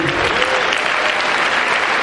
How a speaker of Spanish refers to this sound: Un aplauso